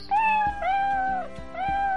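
Cats meowing: three drawn-out, tonal meows follow one another in quick succession, loud and clear with no talking.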